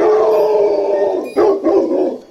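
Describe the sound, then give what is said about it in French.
A dog howls loudly, one long sustained wail, then a brief break before a second rising, wavering howl. No talking. “Non mais c'est pas vrai ce chien, j'y crois pas que c'est pas vrai, que j'y crois pas.”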